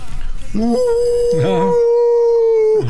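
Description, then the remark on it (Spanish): A man imitates a wolf with a long, loud, sustained howl that rises, wavers, and holds steady for a couple of seconds before trailing off. “estoy aullando, pero de recuerdos.”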